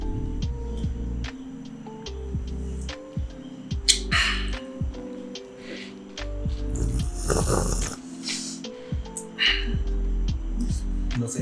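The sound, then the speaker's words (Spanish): Wheezy, asthma-like breathing rasps on steadily, with harsh rattling tones and a louder, breathier gust midway through. No one speaks. “se escucha asma.”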